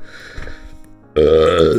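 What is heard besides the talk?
sneeze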